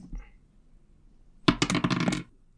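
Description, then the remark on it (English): Dice clatter and rattle across a hard surface for under a second, a burst of rapid bright clicks and tumbling knocks, fairly loud, preceded by a faint short noise and quiet; the roll comes up a four. “why don't you roll me”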